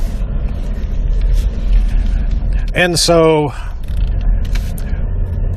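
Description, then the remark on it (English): A steady low rumble of road noise fills the cabin of a moving truck throughout, with a brief spoken phrase cutting in near the middle. “Sorry for all the bounciness here. It is a truck.”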